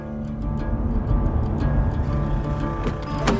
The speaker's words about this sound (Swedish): Okej, okay, Jag är i Småland, i bilen på väg till Hermanstorp.